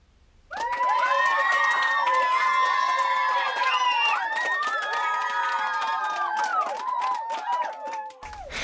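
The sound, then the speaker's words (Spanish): A group of children cheers and shouts excitedly, many high voices overlapping, with scattered clapping underneath. The noise rises sharply, stays loud and steady for about eight seconds, then cuts off. “Un aplauso por ser niños tan inteligentes.”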